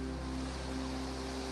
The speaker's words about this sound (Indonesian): apa itu suara hujan ini etan ya hujan ya